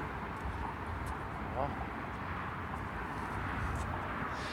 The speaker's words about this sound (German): Ja, man hört es auch schon, die Autobahn ist im Hintergrund. Rauschen der Autobahn.